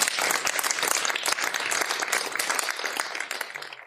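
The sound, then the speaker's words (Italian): Steady audience applause at the opening of the first edition of the Cartoline dal Trasimeno event, many hands clapping densely at a fairly loud, even level with no voices on top. “Con grande orgoglio, con grande fierezza annunciamo la prima edizione di questa manifestazione e a voi tutti benvenuti, vi accogliamo con un bel applauso.”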